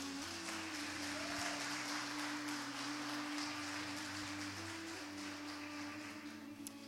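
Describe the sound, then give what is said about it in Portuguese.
A large crowd claps steadily and continuously, a dense wash of applause, with a low sustained organ-like tone humming underneath, as the audience applauds Jesus. “É isso, então aplauda Jesus por causa disso.”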